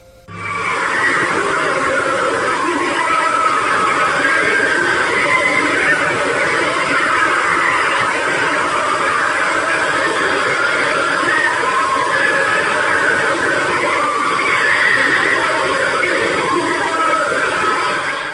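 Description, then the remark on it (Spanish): A purported recording of the screams of souls in torment in hell: a dense, unbroken wall of many overlapping wailing screams, rising and falling in pitch, held at a steady loud level for the whole stretch with a hollow quality. “sabías que hay un audio de lo que se supone son los gritos de las almas en pena del mismísimo infierno?”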